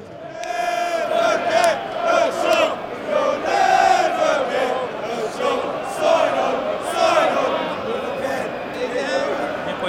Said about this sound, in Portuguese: Porque a torcida do Chelsea cantando, eles têm uma versão sacaneando Liverpool. Eles falam, You'll never get a job, sign on.